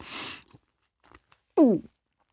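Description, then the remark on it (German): Wet chewing of a mouthful of cold peas, scooped by the spoonful and chewed twice, a few faint mouth clicks, then a short, loud voiced gulp as the food is swallowed. “Ich heue einmal, zweimal und dann schlucke die Ladung ab.”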